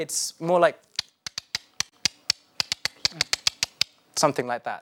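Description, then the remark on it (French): A ruler taps out a quick, uneven series of about eighteen sharp, dry clicks, imitating the Morse-like clicks of sperm whales heard in the sea, crisp, with brief bits of a voice just before and after. “Quelqu'un qui tape avec une, une règle.”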